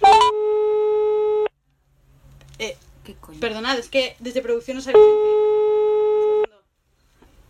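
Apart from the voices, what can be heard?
incoming phone call ringing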